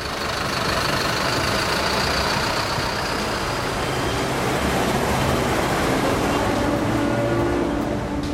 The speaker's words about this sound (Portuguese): Ou o barulho dos ônibus, carros, trens.